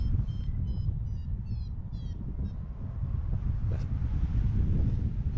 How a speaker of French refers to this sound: la voile pour moi elle bouge beaucoup, c'est un peu alimenté et, ce qui est intéressant c'est d'écouter le son, on entend beaucoup de claquements